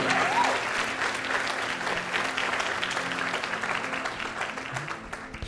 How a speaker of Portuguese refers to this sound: Dê uma salva de palmas para Jesus, porque ele fez isso por você.